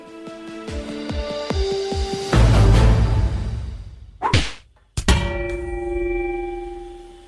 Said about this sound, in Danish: Tæsk og slag.